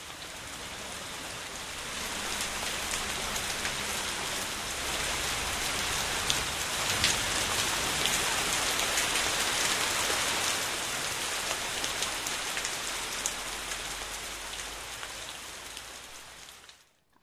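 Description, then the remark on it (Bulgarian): Steady rain patters down continuously, a dense hiss of drops striking surfaces, holding an even intensity for the whole stretch before cutting off abruptly at the end. “а под номер три румоленето на дъжда, значи сте работили правилно.”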